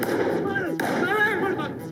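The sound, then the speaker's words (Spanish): A loud, sustained explosive roar fills the whole moment, with a sharp crack partway through and muffled shouting or voices mixed into the dense rumble. “¿Qué cojones ha sido esa puta explosión?”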